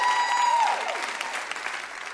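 A crowd applauds steadily for Omari Hardwick and Tori Naughton, guests promoting the Starz show Power, a dense wash of clapping that holds loud throughout, with a brief high tone sliding downward at the start before fading under the clapping.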